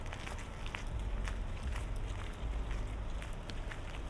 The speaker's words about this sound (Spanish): Y le sigue las obras. Se pueden escuchar también de fondo las obras.